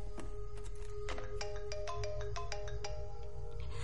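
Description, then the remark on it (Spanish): A mobile phone ringtone plays a bright electronic melody of quick repeating tones over a steady low background rumble, clear, with no one speaking. “Los hermanos miran el teléfono. Ella se agacha lentamente y lo coge.”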